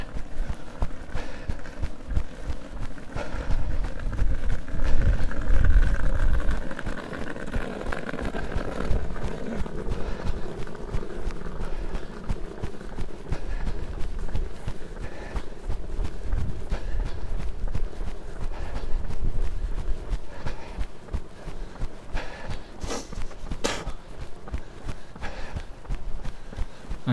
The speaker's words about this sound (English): enjoyed that suitcase sound. Did you? That person was, of course, dragging a suitcase down the pavement, not pushing. Pushing would be mechanically inefficient.